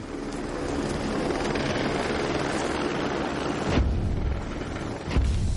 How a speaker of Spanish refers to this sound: El helicóptero desciende con el barracón.